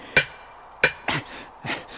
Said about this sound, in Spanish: Me da la impresión de que todos los difuntos están pendientes de mis martillazos.